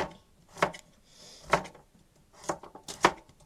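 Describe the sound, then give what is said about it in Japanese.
Several sharp knife chops on a cutting board while preparing pork miso soup (tonjiru), spaced irregularly with pauses between them, fairly clear against a quiet background. “もう今日は1本だけにしますいち切り、”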